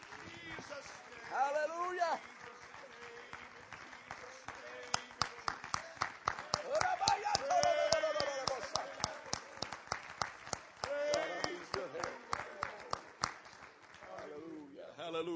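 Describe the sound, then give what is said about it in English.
A church audience at a worship service claps hands together in a dense, sustained burst of applause for several seconds, many sharp overlapping claps, while a raised voice speaks over the clapping. “Clap your hands in the name of Jesus.”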